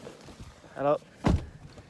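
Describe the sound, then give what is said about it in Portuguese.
People climb into a car: a short squeaky, tonal creak, then one solid thunk as the car door shuts, with quiet background noise around it. “Ó, a gente vai entrar no carro aqui.”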